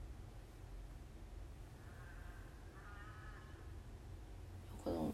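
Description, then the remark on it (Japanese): A crow caws twice, two drawn-out hoarse calls back to back, faint over a steady low background rumble, with a brief louder knock at the very end. “はい、というわけで今日はカラスの声が BGM になってしまいましたが何してるんだろううるさいねえねえ”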